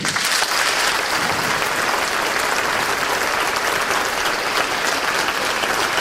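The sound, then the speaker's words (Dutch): A theatre audience claps steadily for six seconds, a dense, loud wash of many hands at an even level with no voices rising above it. “Dat vind ik de belangrijkste boodschap denk dat dat een applaus waard is.”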